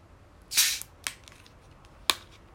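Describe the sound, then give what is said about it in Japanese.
A fridge-chilled glass bottle of lemonade being uncapped: a short, dull pop with a soft fizzy burst, then two sharp little clicks spaced apart, all fairly quiet with no voices. “このレモネードちょっと飲んでみたいと思いますでは、えー、開栓します”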